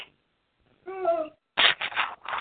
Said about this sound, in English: That's the dog. Yeah. Well, that's because like, he's mad at you because you ain't paying just attention to him.